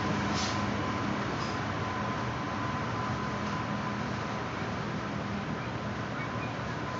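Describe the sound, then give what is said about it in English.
A train rumbles past with a steady, continuous roar and clatter, fairly loud and unchanging throughout, with no voices over it. “Perhaps you would like to wonder what we've been wondering about as the train goes by.”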